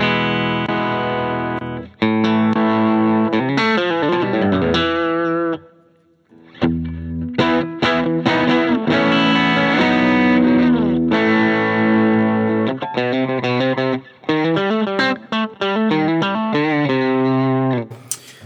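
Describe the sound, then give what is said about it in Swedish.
An electric guitar plays through an RC Boost pedal, with loud, slightly driven chords and quick melodic runs, a brief pause near the middle, and a sustained, harmonically rich tone with no talking. “Sen RC-boosten tycker jag är, är, är, min holy grail.”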